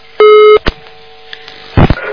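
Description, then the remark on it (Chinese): A listener's phone call to a radio call-in show failing to get through: one steady, mid-pitched busy-tone beep lasting about a third of a second, followed by a couple of sharp clicks and a brief burst of rough noise. “这个电话也没打到底。”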